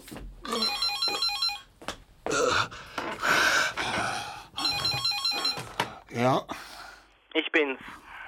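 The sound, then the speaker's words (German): A telephone rings in two bright, trilling bursts separated by a pause, with breathy gasps, thumps and brief shuffling sounds around and between the rings. “ich versuche dich die ganze Zeit zu erreichen. Ja, ach ja, mein Handy, ja.”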